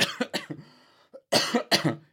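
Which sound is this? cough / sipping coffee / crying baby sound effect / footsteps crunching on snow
cough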